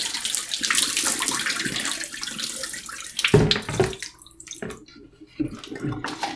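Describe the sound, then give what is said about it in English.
Liquid is poured out of a tank in a steady, rushing stream for about three seconds, then breaks into a few sputtering, splashy gulps and gurgles before stopping. “So I'm doing one more pouring.”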